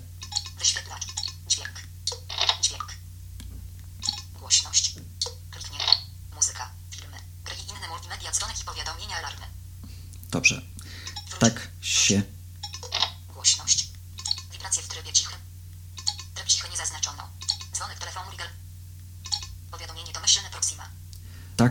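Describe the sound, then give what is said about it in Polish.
Soft, crisp ticks from a Samsung Galaxy Nexus smartphone screen being scrolled through its settings menu with upward finger swipes, a few sharp clicks in quick succession, mixed in with rapid talking voices running throughout. “Słyszymy, że ekran nam się przewija.”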